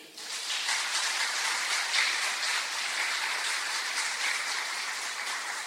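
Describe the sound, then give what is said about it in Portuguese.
A crowd applauds steadily for several seconds, a dense, even wash of many hands clapping with no pauses and no voices. “Aplausos para ele.”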